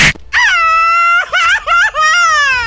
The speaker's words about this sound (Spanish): ¡Viva pues México! Pues ya déjame, llorar como si estuvieras gritando así un grito de júbilo mexicano.